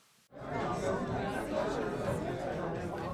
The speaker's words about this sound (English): We're in Rome, Georgia, with a crowd the newspapers will call between 10 and 20,000. It is Friday, March 16th, 1878. It's about 1252. A man is climbing the steps of the scaffold, and in just about eight minutes, he will be dead.